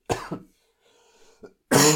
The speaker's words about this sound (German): oh, ich muss husten